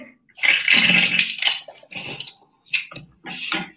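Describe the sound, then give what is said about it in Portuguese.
Saline solution is poured from a small bottle held straight through the nose during a nasal rinse, body tilted forward and head turned to the side opposite the one being rinsed, splashing and gushing out in one long stream followed by three shorter bursts, with brief pauses between them and no talking. “Então inclinou para frente, vira de lado, sempre o lado oposto que você vai jogar o soro.”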